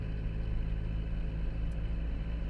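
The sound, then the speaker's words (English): A heavy, steady engine rumble from many trucks on the road, constant in loudness, with a low droning hum and no voices. “There's loads of trucks here.”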